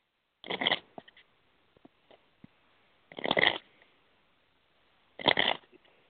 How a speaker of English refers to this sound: I'm gonna shuffle my oracle cards. I want you to tell me to stop whenever you're ready. Count to seven.